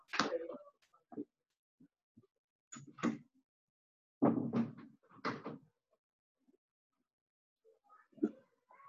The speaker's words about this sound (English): And excuse me, I'll just close the door.